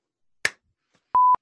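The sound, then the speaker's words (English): A single sharp hand clap, made to line up the audio of a recording, bright and quickly decaying, followed after a short pause by a steady mid-pitched electronic beep lasting about a fifth of a second. No one speaks. “uh, we, there were Do a clap, and then I'll do a clap.”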